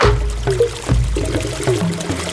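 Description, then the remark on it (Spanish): Water runs steadily from a tap, fairly loud, with a continuous splashing gush and shifting gurgling tones as it pours without pause. “Cierra el grifo, no dejes escapar ni una sola gota de agua.”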